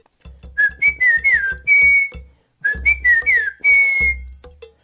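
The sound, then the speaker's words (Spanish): A person whistles a rufous-collared sparrow (chincol) song, popularly rendered as '¿Han visto a mi tío Agustín?', twice, each phrase a few clear sliding notes ending in a long held tone, with a pause between the two. Fairly loud. “Se trata de una frase con la que popularmente se interpreta el canto de un pájaro, del chincol.”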